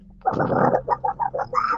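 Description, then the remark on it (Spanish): A person imitates a duck with a loud, raspy, nasal squawk followed by about five shorter quacks in a quick, uneven run. No other voices or sounds accompany it. “Acaba, acaba de hacer la voz del pato de ¿verdad?”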